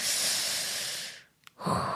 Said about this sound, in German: Und dann merke ich, dass es auch voll gut tun kann, einfach plötzlich in dieses Gefühl ganz reinzugehen und ganz rein zu atmen und einfach nur so,